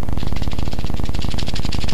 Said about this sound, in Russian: А это вот послушайте, угадайте, что это за звук. Это так грызет крыса? Это, это вот так это она звук, работает? Это звуки топающих, бегающих крыс.